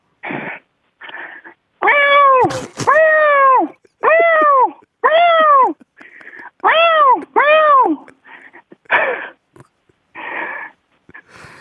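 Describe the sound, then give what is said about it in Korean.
A person imitates a mother cat searching for her lost kitten, producing a series of drawn-out, plaintive meows with short gaps between them, loud, alternating with softer breathy calls. “그, 모, 그 모습, 고양이가 새끼를 잃어버리고 찾는 모습 하겠다는 얘기죠?”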